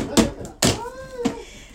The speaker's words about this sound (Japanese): 音聞こえます猫さんの声